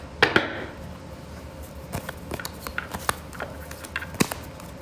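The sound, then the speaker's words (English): Tarot cards being shuffled before three cards are drawn for a reading, a string of soft, irregular papery clicks and flicks with a couple of sharper snaps, fairly quiet and with no one speaking. “All right, so while I'm shuffling, just think um, what number you're gonna choose, one, two, or three.”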